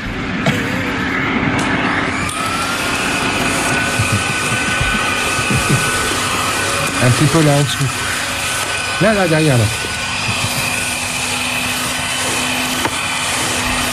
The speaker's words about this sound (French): tu passes un coup d'aspirateur, je t'avais demandé hier, tu l'as pas fait.